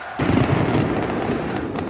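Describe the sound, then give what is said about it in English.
Fireworks and flares crackle and pop in a dense, continuous barrage over a loud roaring crowd of singing fans in a sold-out stadium, BMO Field in Toronto, at minus 13 degrees, celebrating Canada qualifying for the World Cup; starting abruptly and staying intense with sharp bursts throughout. “An endless sea of red jerseys wave Canadian flags singing and dancing as flares and fireworks shoot into the Toronto sky.”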